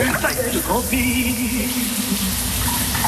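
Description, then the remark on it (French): Steady hiss of shower water running without pause, with a singer singing along in the shower over the spray for most of the few seconds. “que vous prendrez votre douche en compagnie d'un autre beau jeune homme et talentueux en plus.”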